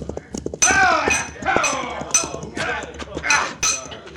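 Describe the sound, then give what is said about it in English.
Mallets of a construction gang hammering in an uneven rhythm, about half a dozen loud metallic clanks that ring briefly after each strike, with a low rumble running underneath. “Grab your mallets and get busy, boys.”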